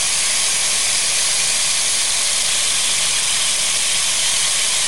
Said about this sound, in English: Damn, it was loud as fuck a second ago. You don't hear that? Cool this bitch down. That sounds like Florida. That's rain. That was rain. That's how hard it was raining at my house.